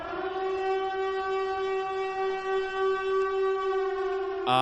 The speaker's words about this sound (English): So I'll give a little uh, spoiler warning right here because um, I can tell you really want to talk about what happens in sort of the second half of this movie. So I'll throw in a siren here.